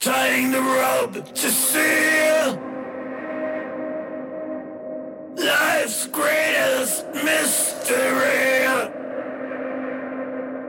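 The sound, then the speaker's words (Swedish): Loud sung vocal phrases, each followed by a dark, muffled, low-pass filtered reverb tail and a delay of roughly a quarter note. The echo hangs in the gaps between lines, dull and missing the brightness of the voice. “jag gjorde om det istället så att jag satte ett lågpassfilter som,”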